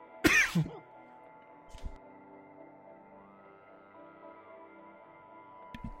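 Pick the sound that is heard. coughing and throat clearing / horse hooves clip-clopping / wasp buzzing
coughing and throat clearing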